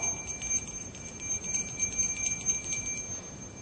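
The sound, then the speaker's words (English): A small hand bell, rung by a Salvation Army worker beside a red donation bucket at a store, rings steadily with a bright, sustained metallic tone, its jingling pulses repeating over a low background hum. No one speaks. “Sometimes there are Salvation Army workers and they have a bell and you hear the bell and it reminds you, oh, it's the season of giving.”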